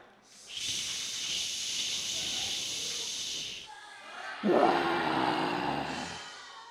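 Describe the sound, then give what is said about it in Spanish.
A large crowd makes a steady, loud hissing shush for a few seconds, imitating torrential rain, then shifts to a heavier, lower rumbling roar of voices imitating thunder. “Bien, ahora, ahora de este lado van a hacer el sonido de la lluvia y ustedes van a hacer el sonido de trueno.”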